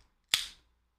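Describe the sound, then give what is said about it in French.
A beer being opened: one sharp, bright pop followed by a short hiss that fades within a few tenths of a second, heard alone against near silence. “J'ouvre ma bière, ok, rapidement.”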